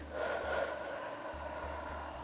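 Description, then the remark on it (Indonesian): A long, breathy exhale after a long breath drawn in through the nose, a steady airy rush that swells early and then trails on evenly without any talking. “Lewat hidung, hembuskan,”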